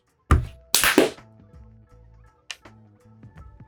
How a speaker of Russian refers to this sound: Так, надо хлопнуть, чтобы потом я мог звук синхронизировать.